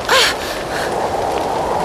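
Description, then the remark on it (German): Gusting wind rushes as a steady, loud, breathy hiss that swells slightly at the start, where a brief gasping vocal sound cuts in before the airy roar carries on. It is a strange wind met in flight while Tabaluga flaps his wings, a wind that can be glided on. “Ah, da ist wieder dieser merkwürdige Wind.”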